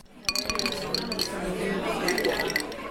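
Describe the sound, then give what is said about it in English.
Several bright glass clinks ring out as two people raise their glasses to each other in a toast at a cocktail bar, amid the steady murmur of a noisy, chattering crowd. “They raised their glasses to each other and soon found themselves shoulder to shoulder at the bar.”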